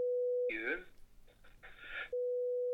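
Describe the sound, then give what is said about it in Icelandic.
A steady, pure electronic tone sounds, breaks off while a person talks, then resumes in regular bursts like a phone line's busy signal, fairly loud. “Þetta er beitt sími til hans Ok, þannig að þetta er, ég, þetta er heimasímin hjá það.”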